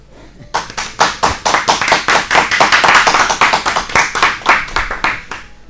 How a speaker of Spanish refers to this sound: Me pongo de pie y te aplaudo.